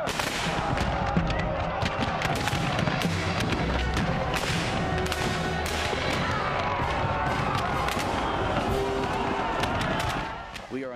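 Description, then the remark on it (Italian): A dense, sustained battle scene of the fight at Little Round Top between Union and Confederate troops, with a battery of cannons: rapid gunfire crackles alongside heavy booming cannon blasts, with a busy, chaotic din of shouting men throughout, fading slightly at the end. “Warren radunò altre tre brigate e allestì una batteria di cannoni. Ne seguì un violento scontro.”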